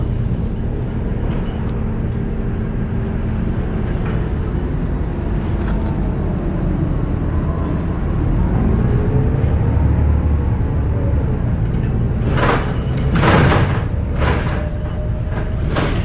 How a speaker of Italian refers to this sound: c'è nessuno sull'autobus, solo io, vediamo se sale qualcuno che sta fermato.